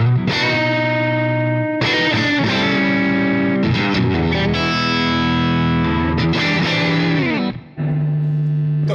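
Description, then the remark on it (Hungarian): Distorted electric guitar through a tube amplifier, with the Bright switch turned off and the gain at the player's usual everyday level, plays loud, sustained chords that ring out and change every couple of seconds, with a short break near the end and no talking. “E, és itt a, és gyakorlatilag itt eljutottunk addig a teritorium, ahol én normál körülmények között egyébként lakom, tehát körülbelül ez a, ez a gén mennyiség, amivel én élek,”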